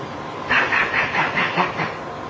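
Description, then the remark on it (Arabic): A teacher's marker squeaks across a whiteboard in a quick, steady run of about seven short strokes, fairly loud, with no voices. “اعمل كده لمده دقيقه و20 ثانيه بس الصوت ده طبعا حنين هناك وايت بورد اللي هي القلم بيطلع عليها صوت مزعج”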